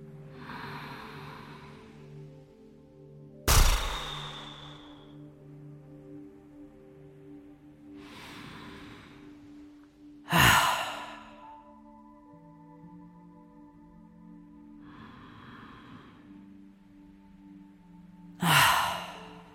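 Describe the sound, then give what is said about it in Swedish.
Three slow breathing cycles in a relaxation breathing exercise, each a deep inhale through the nose followed by a sharp, puffed exhale through the mouth, clear over a soft tonal background hum. “Så andas in genom näsan och släpp taget på utandningen som sker med en pust genom munnen.”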